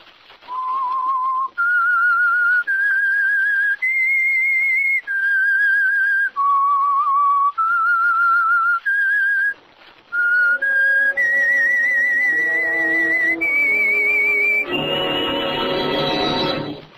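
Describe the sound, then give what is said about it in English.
A lone whistled tune of sustained, wavering notes rising and falling, clear, the whistle signal opening the Signal Oil Program The Whistler, followed by a swelling orchestral chord with no talking. “That whistle is your signal for the Signal Oil Program the Whistler.”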